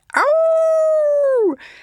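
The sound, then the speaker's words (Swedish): A wolf gives a single long howl, holding a steady mournful pitch for over a second before sliding downward and fading. It is loud, with no other sounds around it. “Man vet ju liksom hur en varg låter.”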